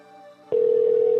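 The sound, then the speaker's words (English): A phone line tone on an outgoing call: after a brief quieter stretch, a loud, steady electronic tone cuts in and holds without a break to the end. No one speaks. “This one's just ringing forever.”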